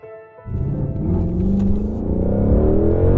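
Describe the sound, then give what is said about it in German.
A car engine starts up and drives along with a steady, loud low rumble and whir, the tone rising slightly as it accelerates. No voices are heard. “Guillotine, bitte lass mich ein bisschen schlöfeln bist so gut schau auf die Straße beim Fahren, gell?”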